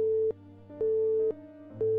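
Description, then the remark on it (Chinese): A telephone busy tone after the line on the other end drops following a thunderclap: a steady mid-pitched beep pulsing on and off in an even rhythm, about two beeps, over a low hum with no voices. “空中响起了一个炸雷，电话那边断线了。”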